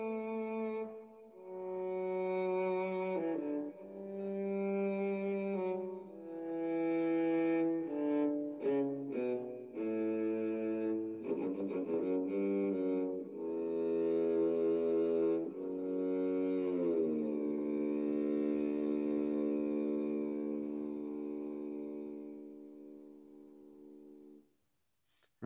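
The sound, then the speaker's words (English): Expressive synthesizer melody played on the GeoShred app, with rich harmonic tones: short phrases, quick gliding pitch bends and a flurry of rapid notes, then a long sustained note that swells and slowly fades out. No voices. “So you get sounds like that and GeoShred. They're very, very expressive, which is really, really a lot of fun.”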